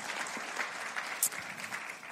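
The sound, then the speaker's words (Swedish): Steady audience applause for the team at a Pingst Umeå church gathering, a dense wash of many hands clapping at an even level throughout, with one brighter sharp clap standing out briefly partway through. “Kom, ska vi ge teamet en stor applåd.”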